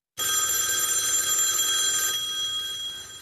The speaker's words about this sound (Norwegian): Og du har vanligvis ikke problemer med at du ikke hører den, fordi eh, mange har fasttelefon i flere rom, så du hører når det ringer uansett hvor du er i boligen.